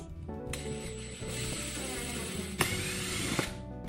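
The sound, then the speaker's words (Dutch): Two small screws are driven in to fasten the last carpet pieces onto a cat tower, with a steady mechanical whirring and ratcheting that runs almost unbroken, broken by a couple of sharp clicks near the end. No one speaks. “Nog twee vijsjes.”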